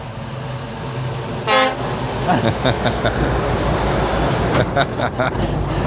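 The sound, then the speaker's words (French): A car rumbles past, its engine noise steady throughout, and gives one short, loud honk of the horn early on, followed by fainter clattering and road noise. “On va peut-être attendre, voir si la voiture euh, passe.”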